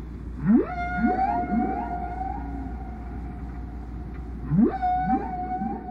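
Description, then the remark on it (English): Whale song: low rising sweeps that bend into long, steady moaning tones, the same phrase repeating twice over a rumbling underwater background, clear with no voices. “That repetition, the fact that these themes are repeating in the exact same pattern over and over again, that meant that these sounds met some biologist's definition of song.”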